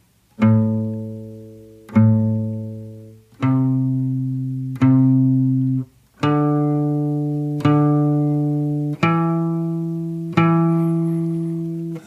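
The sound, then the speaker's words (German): Eight clear plucked string notes in an even, steady rhythm: four pitches, each picked twice in a row with a downstroke then an upstroke, stepping gradually upward. Each pluck rings and decays, played alone with no talking. “Wenn ihr das gut könnt, dann schlagen wir jetzt jeden Ton nur noch zweimal an mit der gleichen Technik. Abschlag, Aufschlag.”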